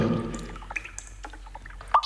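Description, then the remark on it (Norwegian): Water drips irregularly inside a sea cave in Croatia, scattered small plinks and splashes over a low ambient rumble, with one brighter drop standing out near the end. “Lyden av Kroatias mest økologiske havgrotte.”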